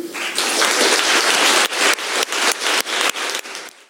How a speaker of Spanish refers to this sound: Al reconocer la creación viva y contemporánea de las artes escénicas, le debemos este tributo. Les pido, por favor, un aplauso de un minuto.